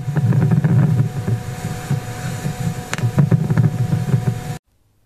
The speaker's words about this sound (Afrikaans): En dan het NASA ook die eerste klank van wind op Mars vrygestel. Kom ons luister.